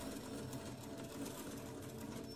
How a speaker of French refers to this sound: Et tu entends la machine à coudre.